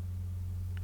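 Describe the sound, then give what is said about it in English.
A steady, low mechanical drone from the motor of a service van, such as a drain-cleaning or carpet-cleaning van, running outside while parked at an apartment complex behind an office, a constant deep hum with no change in pitch or loudness and no voices. “there's like a roto rooter van or something parked in there, or one of those carpet cleaning things where there's like a crazy motor running outside”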